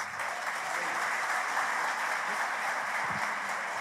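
Steady audience applause, a dense wash of many hands clapping at an even, sustained level for the full few seconds, with no talking over it.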